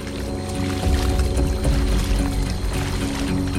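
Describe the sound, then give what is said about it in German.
Water sloshes and swirls steadily around a woman's feet as she wades along a stream grown almost into a small river, a continuous churning rush with a fuller surge partway through. “Das Wasser fließt um ihre Füße.”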